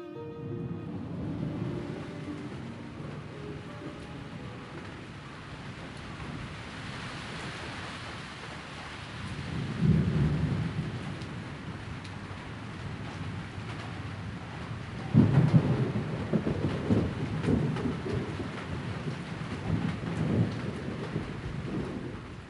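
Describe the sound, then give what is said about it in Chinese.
Steady rain hisses throughout an all-night thunderstorm over the city of Bianzhou while low, rumbling thunder rolls in several times, swelling into heavier booms around the middle and latter part of the storm. No one speaks. “那花剑修回到家中，没想到连夜雷雨不停，闷热烦躁的空气一下子被赶出了汴州城。”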